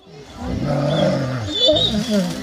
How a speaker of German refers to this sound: Wir hören hier zwei Wölfe, die sich offensichtlich freuen